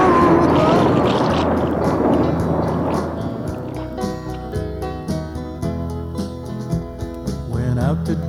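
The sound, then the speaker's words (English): Oars churn and splash through rough water for a few seconds, a dense rushing wash, as a raft is rowed for shore on Lake Chihuahua with a storm brewing, before a tuneful musical passage takes over and the water noise fades beneath it. “Row, everybody. Row for shore as fast as you can.”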